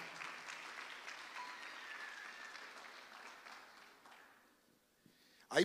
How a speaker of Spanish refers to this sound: Y la iglesia le da palmas fuerte al Señor. Déselo con fuerza al Señor.